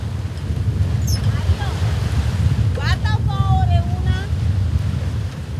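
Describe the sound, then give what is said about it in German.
Strong, steady wind buffets the microphone on a research ship at sea, about 50 kilometres off the coast, over the continuous wash of waves, a dense low roar throughout, with a few faint, brief higher-pitched calls or voices drifting in. “Auf dem Forschungsschiff, ca. 50 Kilometer vor der Küste”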